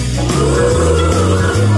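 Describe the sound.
Several voices together make long, low, droning moos imitating cows, their sustained pitches overlapping and shifting steadily, loud, for a couple of seconds.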